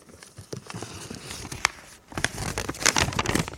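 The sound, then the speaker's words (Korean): Papery rustling and crinkling, continuous, as many paper slips are shuffled and drawn from a pile to pick a lucky letter on the Korean radio show Lee Gi-kwang's Gayo Gwangjang, growing busier and louder in the second half with sharp crackly bursts. “자, 그럼 오늘의 커피 한 잔 후보가 되실 행운의 글자 제가 바로 한번 뽑아보도록 하겠습니다. 자, 오늘은 어떤 글자, 어우, 종이가 많이 있네.”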